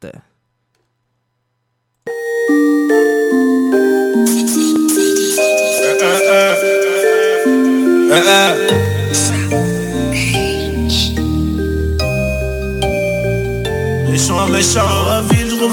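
After about two seconds of silence, a rap song starts at full volume: a melodic instrumental with vocals over it, and a heavy bass line kicks in halfway through.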